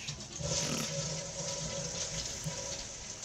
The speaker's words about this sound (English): Sitting on the toilet. Now yeah. flush. Flush.